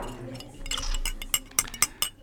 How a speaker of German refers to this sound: Mit einem Löffel kann man gut anstößeln, sozusagen.